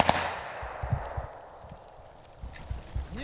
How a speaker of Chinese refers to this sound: 乌克兰的一支突击队冲入壕沟，一边开枪一边迅速推进，刹那间枪声大作，展开一场近距离交火。